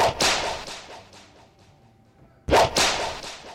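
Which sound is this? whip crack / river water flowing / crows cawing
whip crack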